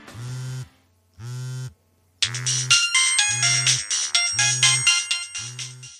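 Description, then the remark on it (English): A phone ringtone for an incoming call from the office plays loudly: two tonal beeps, then a bright, busy melody bursts in over a steady repeating low pulse, with no voices. “It's the office calling again. Don't answer it.”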